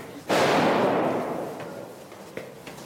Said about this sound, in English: This used to be a wedding hall, now it's the frontline position. Apart from the sound of gunfire, it's eerily quiet in this former ballroom.